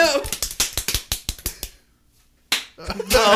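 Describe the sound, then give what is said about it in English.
A rapid flurry of sharp, loud slaps on bare buttocks, about a dozen smacks in a quick uneven rhythm, then a brief silence before a voice and more sharp smacks return. “Slapping ass.”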